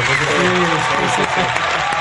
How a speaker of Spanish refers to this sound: ¿Te hacemos el, aplauso así? Sí. Venga, bravo. Como los toreros.